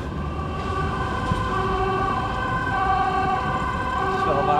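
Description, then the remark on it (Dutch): An emergency vehicle siren wails steadily in the street by the Stopera, loud and sustained with sweeping tones, over a constant rumble of traffic and city noise. “waar jij maar komt, eh, gaat de sirene af.”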